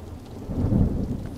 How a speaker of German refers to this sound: Äh, ich finde Gewitter ganz schön unheimlich.